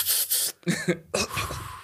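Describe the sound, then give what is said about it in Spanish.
A person coughs several times, a breathy rasp followed by a quick run of loud, harsh hacking bursts with a throaty edge. “Tosiendo.”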